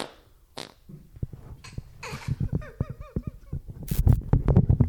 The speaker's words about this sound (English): What's that? Oh, nothing. What have you done? Just a fart.